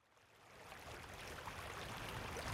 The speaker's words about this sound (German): Das türkisblaue Wasser der Isar kommt aus dem Karwendel in Tirol und fließt bei Scharnitz über die Staatsgrenze nach Mittenwald weiter nach Krünn und Wallgau bis hin zum Silvensteinspeicher.